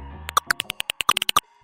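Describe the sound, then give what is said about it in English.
A rapid series of about a dozen sharp, chirpy clicks from a hoary bat's call, recorded by researchers and frequency-shifted down into human hearing, irregularly spaced and growing slightly faster, clear with no talking. “This is the sound of a hoary bat.”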